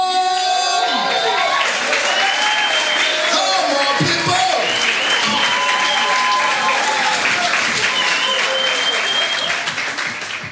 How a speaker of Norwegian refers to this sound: And uh, let's let's give him a big, big, big round of applause.